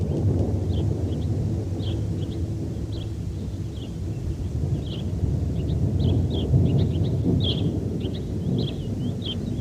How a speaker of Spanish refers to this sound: Y esos truenos que anuncian tormenta nos avisan también de que otra cineficción radio terminó.